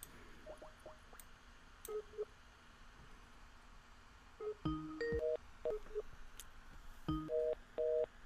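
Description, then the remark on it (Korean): Short electronic phone tones beep in a quick, uneven sequence, with a few louder two-tone bursts standing out, like a call hitting a busy line, as a call fails to connect during a live broadcast. No one speaks over them. “음, 전화가 또 안 되네요.”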